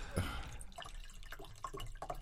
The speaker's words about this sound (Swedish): Säger han och häller upp lite vatten